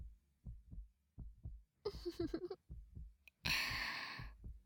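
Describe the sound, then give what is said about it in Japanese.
A muffled heartbeat thumps in a steady rhythm, interrupted twice by soft, breathy exhales or sighs, with no talking. “ねえ私の心音も聞こえてる ほら心臓がドクドクしてるでしょ”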